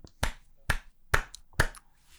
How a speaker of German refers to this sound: Richtig. Dafür mein Applaus.